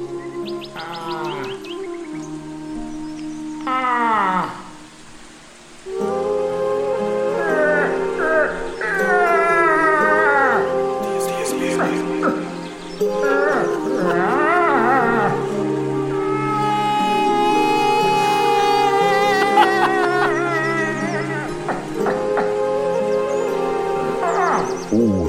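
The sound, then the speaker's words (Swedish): Moose calls: drawn-out, wavering moans and bleats follow one another almost without a break, fairly loud, sometimes overlapping, with only a short lull early on. “Så ståtliga som de är så låter de lite speciellt. Men vi ska nu avnjuta lite älgmusik.”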